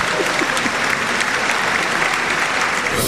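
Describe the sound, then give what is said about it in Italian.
A dense, steady burst of audience applause at the Teatro Lauro Rossi in Macerata during a live radio show, many hands clapping together at an even loudness for about three seconds with no voices standing out. “Un applauso.”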